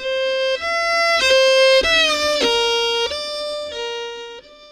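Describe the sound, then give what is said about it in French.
A violin bows loud, sustained, buzzy tones, stepping between pitches with a quick rising-and-falling slide in the middle, imitating a motorcycle engine revving and shifting gears. No voices. “Une moto”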